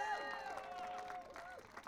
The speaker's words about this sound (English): They did, the youth did this. This is a youth run program. So we need to give them an extra round of applause.